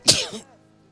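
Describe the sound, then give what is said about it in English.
A single sharp sneeze bursts out, a sudden hissing explosion of breath that fades within half a second into quiet. “Gesundheit.”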